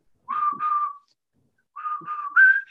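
A person whistles a short tune in two phrases separated by a pause, steady mid-high notes with a final rising note, clear and alone with no talking.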